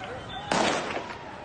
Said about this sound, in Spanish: estos disparos al aire de los talibán que escuchan y que han tenido lugar en la ciudad de Yalalabad en medio de protestas